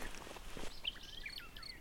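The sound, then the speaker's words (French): A nightingale sings beside a long straight road, thin whistled notes and quick rising and falling phrases over soft outdoor noise, with some faint rustling or steps at the start. “Et le petit rossignol se fait entendre.”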